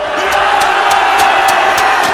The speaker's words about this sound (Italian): Eh sì, anche Jake Angeli si unisce a questo grande tripudio della folla